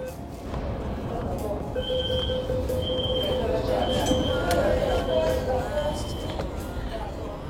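Steady Beijing subway carriage ambience: a continuous low rumble with a thin electric motor whine holding steady through the middle, indistinct passenger chatter underneath, and a few faint metallic clinks.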